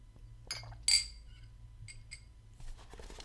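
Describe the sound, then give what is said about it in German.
Someone takes a sip from a glass: a few light, ringing glass clinks, the sharpest about a second in, followed by soft rustling and quiet drinking noises over a low background hum. “Ich trinke nochmal einen Schluck und, und dann geht's los.”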